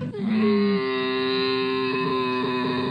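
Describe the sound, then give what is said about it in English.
A camel lets out a loud, sustained, moaning bellow lasting a few seconds, rich and buzzy with a steady pitch, with no one talking. “No, what animal is it? Camel absolutely right.”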